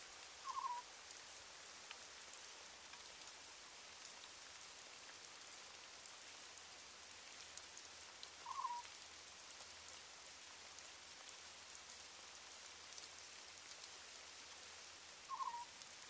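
Steady rain falls outdoors in a soft, even hiss with no voices, while three short bird-like calls sound at wide, regular intervals above it.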